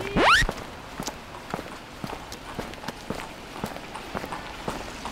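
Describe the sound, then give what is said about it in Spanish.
Footsteps walk at a steady, unhurried pace, each step a sharp tap: Vincenzo Perugia, an Italian carpenter, leaving his apartment for the Louvre with a small toolbox at half past seven on Monday morning, 21 August 1911. A quick rising swoosh opens the sequence, and no one speaks. “Los pasos que escuchas son los de Vincenzo Perugia, exiliado italiano y carpintero de profesión, que sale de su apartamento camino del Louvre con su pequeña caja de herramientas, donde hoy ha decidido meter algo que no llevaba nunca,”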